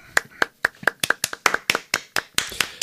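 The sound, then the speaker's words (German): Applause from a few people, a run of sharp, distinct hand claps at a fairly steady quick rhythm, about a dozen over a few seconds, slightly overlapping toward the end. “aber von uns bekommst du auf jeden Fall einen warmen Applaus.”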